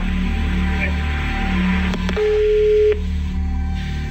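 A steady electronic telephone tone sounds once for under a second amid constant background hum, preceded by a couple of sharp clicks and followed by another.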